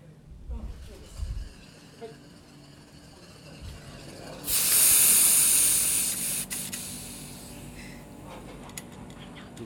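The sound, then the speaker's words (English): Tokyo Hell beer fizzes up in a sudden, bright hiss partway through, loud, then gradually settles into a softer bubbling. A few dull thumps and handling noises come before it. “sound of the beer.”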